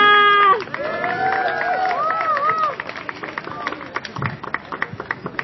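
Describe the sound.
A crowd breaks into applause, with whoops and high cheering voices rising over dense clapping at first, then the cheers fade and scattered, uneven claps continue to the end.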